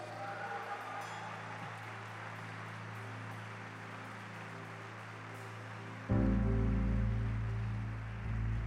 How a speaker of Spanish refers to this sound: Dale un fuerte aplauso a Jesús